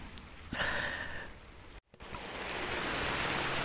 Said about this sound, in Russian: Так полилось, опять полилось и полилось довольно сильно, так что уже капли начали просачиваться и капать вот тут на все это мое и на сооружение, на стол, на аппаратуру